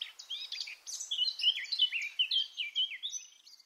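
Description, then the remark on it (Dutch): A garden warbler sings in the background, a rapid, continuous warbling phrase of bright, tumbling notes, with no other sounds around it. “En achteraan daar een tuinfluiter. Niet echt een grote zang, hmm. maar wel sympathiek.”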